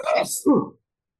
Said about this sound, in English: I don't know how much of that you can edit out uh, or not. It doesn't really matter because you know what? You're not sneezing on me.